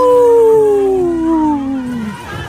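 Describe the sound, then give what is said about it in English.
A wolf lets out one long, loud howl that slowly slides downward in pitch and fades near the end, with no talking. “Howling for Wolves, protecting wolves for future generations.”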